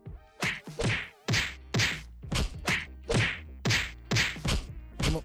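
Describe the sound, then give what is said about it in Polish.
A rapid, steady series of about a dozen close, heavy slaps, like someone beating a block of tofu to press the water out. Each blow lands sharply with a damp, fleshy smack, and no one speaks. “I w tofu jest fajne to, że bardzo wiele przepisów wymaga od ciebie e, bicia tofu, naparzania w tofu, żeby pozbyć się wody, wtedy to brzmi tak.”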